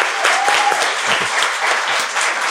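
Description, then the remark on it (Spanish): Steady, dense applause from a group for dermatologist Doctor Velasco, a continuous wash of clapping at an even loudness for a couple of seconds with no talking over it. “Le damos un aplauso al doctor Velasco.”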